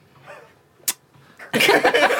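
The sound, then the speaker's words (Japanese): A single sharp, quick tongue click rises out of quiet murmuring; moments later a loud, noisy burst of laughter takes over. “舌打ちされた”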